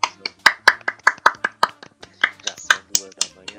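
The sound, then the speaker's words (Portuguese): Three people clapping their hands together at once in a quick, steady run of sharp claps, slightly out of sync, with faint voices murmuring underneath. “Vamos bater uma, umas palmas, vamos bater. Tem que ser os três de uma vez, vai.”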